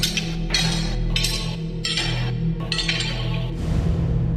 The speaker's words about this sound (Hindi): और ये आवाज सुनकर ऐसा लग रहा था मानो कोई भारी लोहे की जंजीरों में बंधा उनकी तरफ ही आ रहा हो